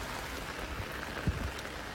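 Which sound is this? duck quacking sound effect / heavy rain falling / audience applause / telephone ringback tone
heavy rain falling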